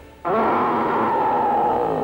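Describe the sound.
A big bear's deep, rough growl bursts in suddenly and holds loud and steady for about two seconds, alone, with no talking.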